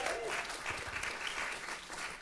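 Steady, dense applause from a church audience, a continuous wash of many hands clapping at an even loudness throughout, with faint crowd murmur mixed in.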